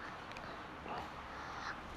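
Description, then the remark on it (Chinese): A few faint, harsh seagull cries come through a steady hiss, short squawks rising at intervals over roughly two seconds with no talking. “这是什么？ 海鸥”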